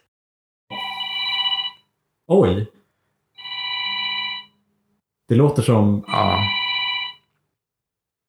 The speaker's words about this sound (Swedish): dålig inspelning av en 80-tals telefon. Som bara låter alltså så här ring, ring